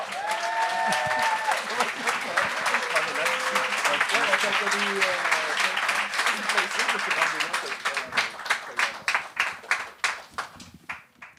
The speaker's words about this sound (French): on accueille, s'il vous plaît, un tonnerre d'applaudissements.